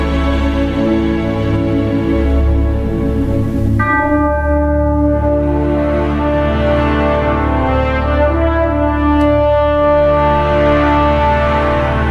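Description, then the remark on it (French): Loud orchestral film-score music from the film Van Helsing, with sustained, layered harmonies and ringing bell-like tones, shifting to a new chord partway through and swelling steadily, with no voices. “On va entendre l'extrait du film présentement.”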